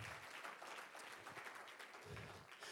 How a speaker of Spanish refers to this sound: Un aplauso fuerte, Señor, déselo fuerte. ¡Uh!